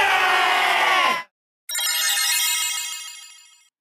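A loud electronic phone ringtone plays in two bursts: a dense, buzzy tone for about a second, a short pause, then a brighter trilling ring that gradually fades out.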